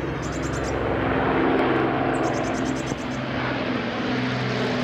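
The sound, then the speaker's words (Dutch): An old Lancaster bomber flies over with a deep, steady propeller-engine drone that holds loud and unbroken throughout, a low rumbling roar with a faint high chirping above it. “En er zelfs een oude Lancaster oerhaans vlieg.”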